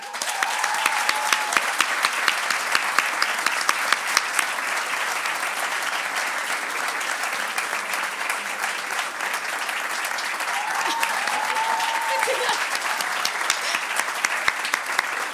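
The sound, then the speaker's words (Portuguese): Sustained applause from an audience welcoming a guest, a dense steady patter of many hands clapping at a constant level for about fifteen seconds, with faint crowd murmur and a couple of brief cheers mixed in. “Uma grande salva de palmas para …!”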